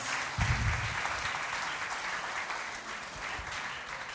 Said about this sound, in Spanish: Pero bienvenidas también, vamos a darles un aplauso, bienvenida.